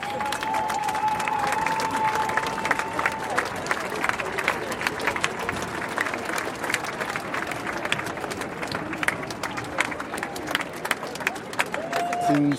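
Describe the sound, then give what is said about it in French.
A dense outdoor crowd at a street demonstration, including families, children and many young people, fills the scene with steady murmuring, scattered clapping and shouts, a constant wash of many voices without pause; a faint whistle-like tone rises briefly near the start. “C'est une, foule euh, vraiment euh, cosmopolite avec euh, des Français de toute origine.”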